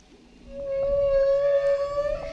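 A long, rising whale call sounds alone, a steady tonal moan with bright overtones that swells in after a quiet start and holds for about two seconds over a low rumble.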